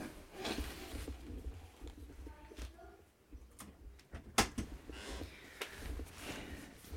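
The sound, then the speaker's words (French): A bedroom door that had come open is pushed shut, ending in one sharp latch click and thud, surrounded by soft rustling and a low rumble. “Ah mince, attendez, la porte s'est ouverte. J'ai quand même. je l'ai ouverte, c'est pas grave. On va voir. Non, je vais la fermer quand même.”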